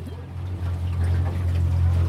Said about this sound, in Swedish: Ja, Marie kör sin båt stadigt här. På vägen, den korta vägen mellan Lidingö och Storholmen.